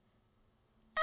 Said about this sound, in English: you might be able to hear her meow actually. She's meowing right now. Um, she gave birth to three more. So it's a total of four kittens. So she is a mama, which is very cute.